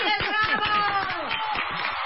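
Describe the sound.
A short burst of applause: a dense, steady patter of hand claps for about two seconds, mixed with voices cheering and laughing over it.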